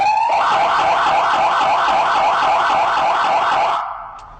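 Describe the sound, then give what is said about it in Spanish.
A loud emergency vehicle siren in the tone used at crossings and intersections to warn drivers that the vehicle is about to pass, a fast warbling wail that rapidly oscillates up and down in pitch for almost four seconds, then cuts off abruptly. No talking. “Este tono siguiente es el que utilizamos en cruceros o intersecciones. Esto es para avisar a los conductores que vamos a pasar.”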